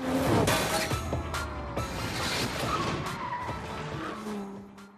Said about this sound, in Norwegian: Ja, Otto Jespersen på et fergeleie i Norge og mye burning-lyd.